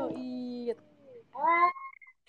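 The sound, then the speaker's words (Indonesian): A cat meows twice, fairly loud: a drawn-out first call, a short pause, then a second meow that trails off into a thin whine. “setuju si kucing.”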